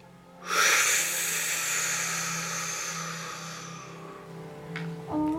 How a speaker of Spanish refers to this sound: Frunce tus labios e inhala profundamente por la boca. Inhalas profundamente por la boca con un silbido. Escucha el sonido del silbido de la inhalación mientras vibras mentalmente so.